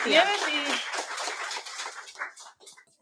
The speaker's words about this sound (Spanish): Bueno, venga, un aplausín. gracias, eh, hasta luego.